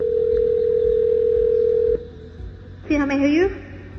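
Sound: telephone ringing tone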